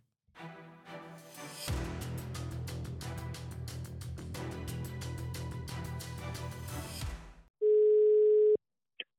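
A rhythmic music bed plays, then cuts out for a single steady ringback tone from an outgoing phone call to the team's head coach, lasting about a second, loud, with no talking.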